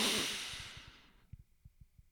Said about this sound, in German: durchs Schnaufen.